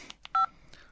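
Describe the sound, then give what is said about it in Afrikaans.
A mobile phone gives a brief electronic ring, one loud steady two-tone beep lasting a fraction of a second, framed by a few soft clicks and no talking. “En toe lei sy foon.”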